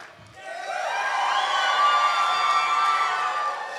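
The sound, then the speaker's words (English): An audience erupts into loud, sustained cheering and shouting for about ten seconds, acting as God's favorite when asked, many voices overlapping in high-pitched whoops and yells that swell quickly and hold steady. “Now, you see how we act when we think we're God's favorite?”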